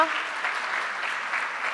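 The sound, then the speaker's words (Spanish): A church audience applauding the members present at a service steadily, a dense wash of many hands clapping at an even, sustained level with no pauses and no voices standing out. “Miralos, aplaudilos.”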